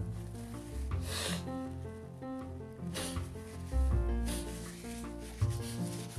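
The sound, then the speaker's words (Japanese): Someone blows their nose because of a runny nose, in three short, breathy, rasping bursts spaced about a second and a half apart, over steady background music with no talking. “ちょっと花粉症じゃないと思うんだけど鼻水が出るので噛みます”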